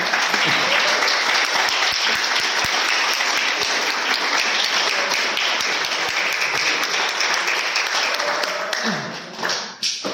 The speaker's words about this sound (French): Alors, si vous voulez bien, j'aimerais qu'on applaudisse toute cette équipe de décoration.